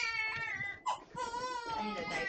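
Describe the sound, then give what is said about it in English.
A little boy cries loudly and continuously, wailing in long, strained, high-pitched sobs with a brief catch of breath partway through. “You guys hear the little boy crying?”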